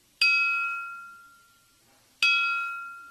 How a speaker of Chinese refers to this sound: 这六套编盘保存的都比较完好，虽然在地下掩埋了两千多年，但轻轻敲击就能传出来自远古的声音。